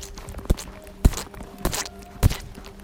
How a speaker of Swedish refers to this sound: Och det lät ju så här då. Nu, nu går de genom eh, leran här.